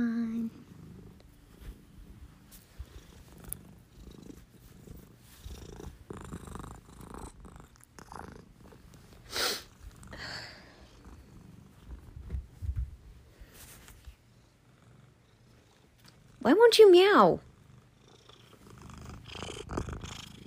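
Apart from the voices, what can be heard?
cat purring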